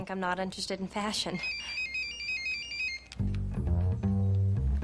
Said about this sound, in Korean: 그때 한 통의 전화가 와요.